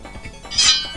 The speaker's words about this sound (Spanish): La maraca.